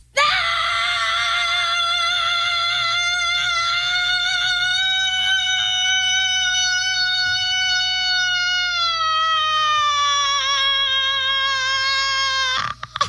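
A woman lets out one long, loud primal scream, holding a steady high pitch for about twelve seconds before it dips slightly and cuts off abruptly.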